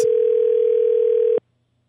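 A steady, single-pitched telephone tone hums loudly and evenly for about a second and a half, then cuts off abruptly into silence as a call goes through.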